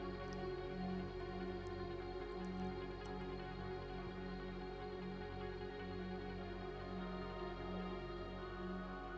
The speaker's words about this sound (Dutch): Het lijkt bijna wel een rivier die je hoort en je gaat op zoek. Je gaat zoeken en kijken waar de rivier is.